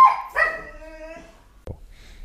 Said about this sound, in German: Äh, jetzt nimmst du die Pause als Ausrede, dass mein Hund laut ist.